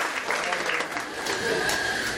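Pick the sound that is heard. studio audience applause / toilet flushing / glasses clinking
studio audience applause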